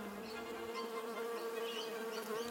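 honey bees buzzing

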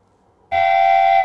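whistle being blown

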